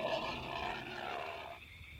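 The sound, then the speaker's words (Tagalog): A menacing creature growls at night in a long, rough, rumbling snarl that holds steady and loud for about a second and a half before easing off, the same growls heard the night before, with no voices present. “Dahil narinig ko na naman ang mga pag-angil na narinig ko noong nagdaang gabi.”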